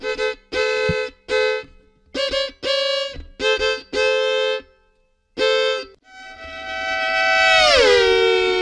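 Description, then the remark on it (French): A violin mimics car horns with a string of short, loud honking notes in an uneven rhythm, then one long held tone that swells and bends downward in pitch. No one speaks. “Ou des klaxons.”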